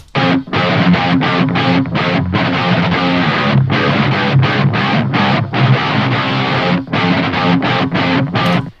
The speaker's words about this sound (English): I recorded that guitar section on a split coil split the neck pickup,